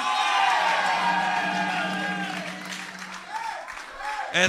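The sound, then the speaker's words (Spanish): An audience erupts in loud shouts of amen and cheering in response to a preacher's call for a shout of amen, a dense wash of many voices with applause, tapering slightly before a final burst of whoops near the end. “Cuando creen que está hecho, deme un grito de amén.”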